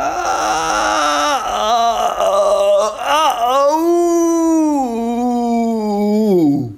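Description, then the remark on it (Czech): A human voice mimics a hurt, mournful cat with a broken paw, with long wavering meows and whimpers, the pitch sliding up and down before dropping off at the end, loud and with no other sounds. “To je spíš kočička se zlomenou tlapkou.”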